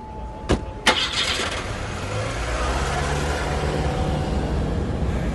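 Two sharp clunks, then a car engine turns over and catches, settling into a steady rumble that continues to the end with no talking.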